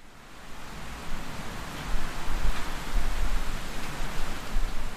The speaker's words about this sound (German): Später hat es angefangen zu regnen und ich bin ins Pfahlbauhaus gerannt, um die Regengeräusche aufzunehmen. Gerade rechtzeitig, weil kaum bin ich im Haus war, ist es richtig losgegangen.